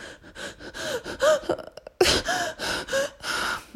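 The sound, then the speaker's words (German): A voice imitates heavy sobbing, a run of sharp, hitching gasping breaths in quick succession, fairly loud, with a brief pause before another burst of juddering inhalations. “wenn man ganz, ganz, ganz doll weint oder als Kind so ganz krass schluchzt und der ganze Körper so erschüttert ist vom Weinen, so richtig das Atmen ist, ist eingeschränkt und dieses so richtig so.”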